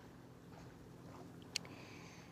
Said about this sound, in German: Oh, ich sitze gerade hier am Bodensee. Ich hoffe, es ist nicht zu laut. Da fahren äh, Boote vorbei und ein bisschen Wellen gibt es da auch noch.